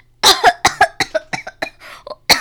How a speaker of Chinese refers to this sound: 哎呦，我咳嗽，